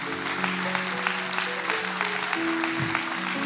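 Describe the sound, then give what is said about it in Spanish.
An audience claps steadily for the Lord during a sermon, in a loose rhythm, a broad wash of many hands, while sustained keyboard or organ chords hold underneath throughout. “Vamos y vamos a aplaudir, hágaselo al Señor porque es para Él, no es para mí, es para Dios.”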